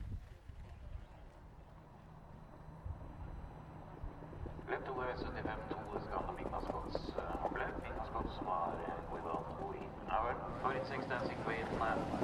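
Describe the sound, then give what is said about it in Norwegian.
Hooves of the trotting horse Dancing Queen clop steadily on hard ground in an even walking rhythm as she walks toward the exit right after being let loose, with wind noise and a low rumble underneath; the hoofbeats grow louder and busier toward the end as if approaching. “Dancing Queen begynner å skritte mot utgangen med en gang hun er løs.”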